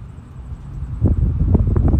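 Low, blustery wind rumbles steadily outdoors on a patio porch early in the day, growing stronger and gustier in the second half with buffeting bursts against the microphone; no one speaks.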